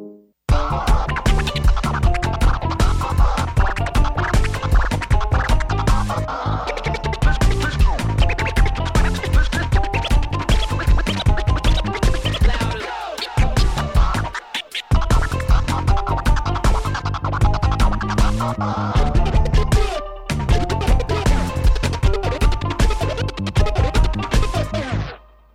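Turntable scratching cuts rhythmically over a rap beat with heavy bass, rapid back-and-forth chirps repeating throughout, with two brief drops near the middle and end.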